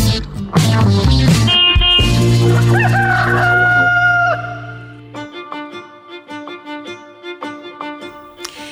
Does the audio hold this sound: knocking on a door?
no